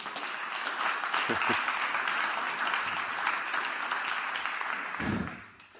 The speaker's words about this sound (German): Und deswegen an dieser Stelle ein Dank an die Gemeindeleitung. Also einen Applaus bitte.